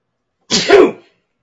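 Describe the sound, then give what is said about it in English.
A single loud sneeze: a sharp breathy intake burst followed by a forceful noisy explosion, lasting about half a second in otherwise silent surroundings. “God bless you.”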